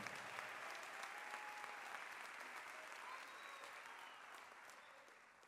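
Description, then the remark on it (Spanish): Sustained applause from an audience, given for the Lord: a dense steady wash of many hands clapping at once, holding fairly even and tapering slightly toward the end, with faint voices mixed in. “De lo más fuerte ese aplauso para el Señor, hermano.”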